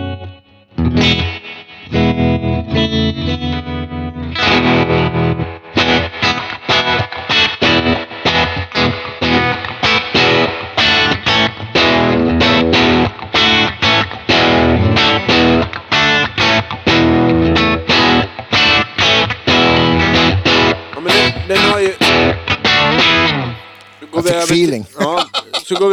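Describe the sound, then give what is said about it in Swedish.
An electric guitar plays through an effects pedal and amp, washed in heavy reverb, with loud, busy picked and strummed notes running continuously before trailing off at the end. “Och mycket reverb.”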